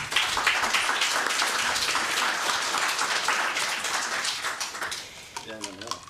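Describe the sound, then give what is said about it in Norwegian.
Warm audience applause welcoming panel guests at a debate on kindergarten policy, a dense steady wash of many hands clapping at full strength, thinning out near the end as a voice begins to speak. “Vi gir deg en varm applaus.”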